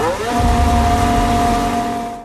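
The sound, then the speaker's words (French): A Ferrari Formula 1 racing engine, from the team's 2024-season car, revs loud, its high whine climbing quickly in pitch and then holding a steady scream for about two seconds, with no talking. “Pour l'instant, on ne connaît que le bruit de son moteur.”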